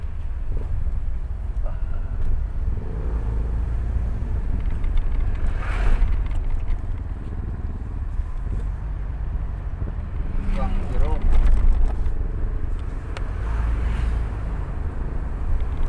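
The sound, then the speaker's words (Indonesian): A truck outside makes a deep, steady rumble that fills the background throughout, a constant low drone, while people talk briefly over it. “Ayah truk di luar lila.”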